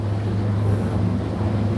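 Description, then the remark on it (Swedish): A boat's engine drones steadily in Oxdjupet on the Swedish east coast, a low continuous hum mixed with rushing wind buffeting the microphone, with no voices and no breaks in the sound. “Eller som man är här nu, mitt i oxdjupet.”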